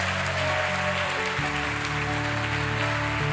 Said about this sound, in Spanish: Dele fuerte ese aplauso al Señor. Fuerte ese aplauso al Rey de Reyes.